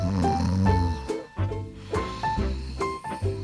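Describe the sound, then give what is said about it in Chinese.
A voice imitates the quiet snoring some people make while asleep: a quick series of short, low, rumbling snorts with breathy edges, repeating in an uneven rhythm at a soft-to-moderate level, with no words spoken. “打呼就是有些人在睡觉的时候会发出像这样子的声音，而且有些时候。打呼声是很小声的，像是”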